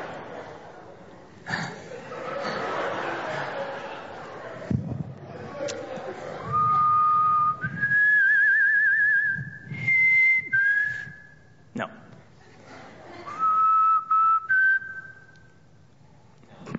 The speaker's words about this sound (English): Okay, well, can you whistle for us then? Uh, pick a hymn and then whistle.